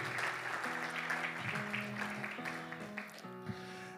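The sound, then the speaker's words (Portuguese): A church audience claps steadily for several seconds as a round of applause to God, a dense, continuous wash of applause, while sustained keyboard chords play underneath and shift pitch a few times. “Então dê uma salva de palmas ao nosso Deus Todo-Poderoso.”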